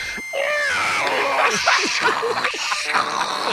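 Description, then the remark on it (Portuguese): A voice mimics a dial-up internet modem connecting after the button to connect to the internet is pressed: a loud burst of screechy whistles, warbling sweeps and hissy static that runs continuously for about three seconds. “Aí você aperta o botãozinho de ligar a internet.”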